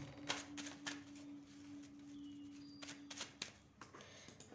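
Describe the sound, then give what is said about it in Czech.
Tarot cards being shuffled and laid out: several crisp, papery riffles and slaps in quick bursts, fairly quiet, with a steady low hum underneath and no talking. “A už vypadají karty.”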